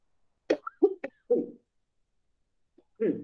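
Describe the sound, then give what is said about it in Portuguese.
A few short, harsh coughs, one after another, from a speaker who has a cough, mixed with brief voiced throat sounds, then a pause and another short vocal burst at the end. “Desculpa, gente, aqui é estou com tosse.”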